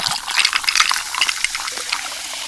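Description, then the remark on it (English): Steady fizzing of Pepsi Zero Sugar soda being poured over ice, a dense crackle of tiny popping bubbles that runs continuously for a couple of seconds. No voices are heard. “Hear all those deliciously fizzy Pepsi bubbles?”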